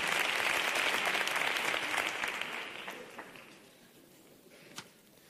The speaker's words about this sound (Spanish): Este aplauso para ustedes